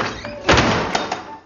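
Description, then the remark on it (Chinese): A neighbor shuts a door with a single solid thunk about a third of the way in, followed by a couple of lighter knocks and rattles as it settles. “老哥啊，你骂人是骂的很过瘾呢，但是能不能先把肉还给人家再关门啊？”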